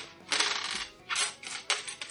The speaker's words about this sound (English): Oh, dice dump!